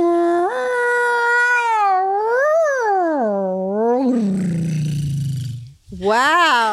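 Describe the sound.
A human voice imitates humpback whale song with long, swooping tonal moans that rise and fall in pitch, sliding into a low growl before one last rising wail; fairly loud, with no other sounds.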